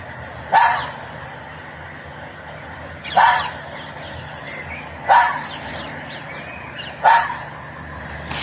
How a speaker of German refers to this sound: es ist das sogenannte Fuchsbellen, Sebastian, was man da gehört hat